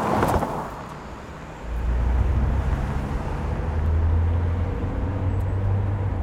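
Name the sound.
car driving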